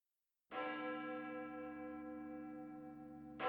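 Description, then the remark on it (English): A single deep night bell strikes and rings out with a long, steady sustained hum, followed by the sharp onset of a second strike near the end; the last toll of the night bell, marking dinner. Loud, with no voices. “As promised, Björn collected them for dinner on the last toll of the night bell.”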